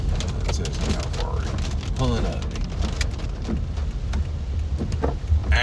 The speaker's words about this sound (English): It's raining and shit.